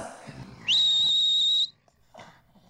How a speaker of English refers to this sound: If I blow the whistle from time to time, they just sit there and don't attack the door.